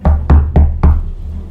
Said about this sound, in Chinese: 有一天，蜘蛛神阿南西正准备坐下来吃晚餐的时候，门口传出敲门声。